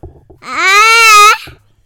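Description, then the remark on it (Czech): A small child lets out one loud, sustained shout close to the microphone, a bright rising wail lasting about a second, with quiet murmuring before and after. “Ne, takhle nahlas do toho, nesmíš do toho takhle křičet, máma tě to ještě musí naučit s mikrofonem.”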